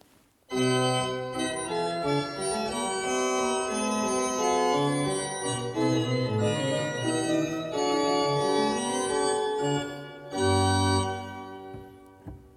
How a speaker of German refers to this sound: Jetzt hören wir den Prinzipalchor mit der Zimbel, mit der Klangkrone von diesem Positiv.